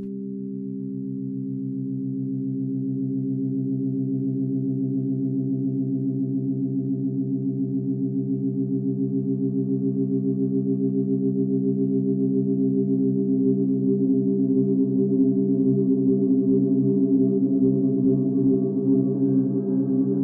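A sustained buzzing drone from a long thin vibrating wire, from a 1977 piece. Steady and low with dense overtones, gradually swelling and growing rougher, with audible beating toward the end. No voices.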